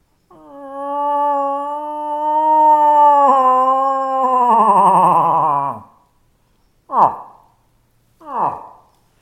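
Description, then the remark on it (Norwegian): A person's voice imitates a cow moose's rutting call to lure in bull moose: a long, loud, nasal moan lasting several seconds that wavers and drops at the end, followed by two short descending grunts. “Så de kan komme og sprenge an og kikke på deg da, når du drar ned lyden her.”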